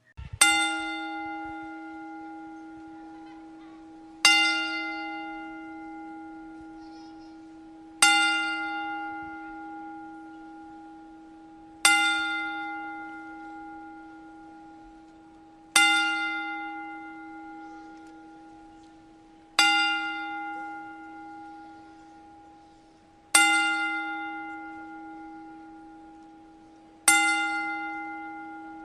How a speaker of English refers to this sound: Um, at this current time, we want to do a 10 bell salute because unfortunately, uh, the pro wrestling world lost uh, Chyna this week.